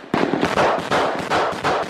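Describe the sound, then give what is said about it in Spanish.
Several loud explosions go off in quick succession, each a sharp, booming burst with a rumbling tail, filling the two seconds with no voices, in footage of armed militants clashing with the Israeli army. “Se escucharon varias explosiones.”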